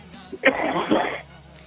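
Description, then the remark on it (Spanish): A single harsh cough-like throat clearing bursts out for under a second, rough and breathy, then fades into a quiet background. “Quiero que le tomemos un poquito de tos.”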